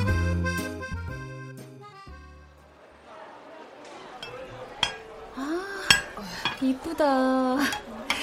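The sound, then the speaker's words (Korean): Ceramic plates and dishes clink and rattle as they are handled, with a series of sharp chimes and clatters, some scraping, and a few ringing tones lingering after the knocks. “이 접시 이쁘지? 너 좋아하는 피자 담으면 딱이겠지?”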